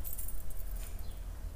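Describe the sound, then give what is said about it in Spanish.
Keys jangle continuously for a moment, a bright metallic rattling that is moderately quiet, with a low steady rumble underneath and no talking. “Todos nosotros tenemos esto, ¿no? Llaves.”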